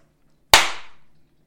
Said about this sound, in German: Und zwar gehst du jetzt mal ein bisschen vom Mikrofon weg mit dem Kopf. Ja. Und klatsch mal in die Hände. Kräftig.